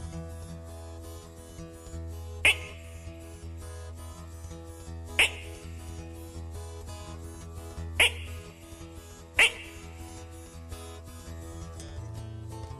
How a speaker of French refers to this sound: Il y en a d'autres qui font... les plus grosses. Et même de temps à autre, on entend certaines grenouilles qui font...